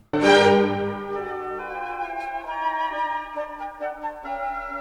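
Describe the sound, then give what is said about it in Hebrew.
An orchestra plays a short passage near the end of a movement of a Mozart symphony, opening on a full, loud chord before lines shift briefly through close, stepwise chromatic notes; steady and sustained, with no voices. “אז אה, כן, החלק שברנסטיין מתייחס אליו, זה באמת החלק הכרומטי היחיד פה, שמוצרט עושה את זה באמת בקריצה, זה לא היה חייב להיות כאן.”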